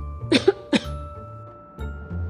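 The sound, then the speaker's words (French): Two or three sharp coughs in quick succession, a short burst followed by another, then quiet room tone with no talking. “je compris ce que signifiait cette toux.”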